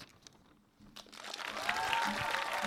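Applause from an audience for a man walking up to the front starts out scattered and quickly swells into a steady wash of many clapping hands, dense and noisy, growing louder through the second half with no talking over it.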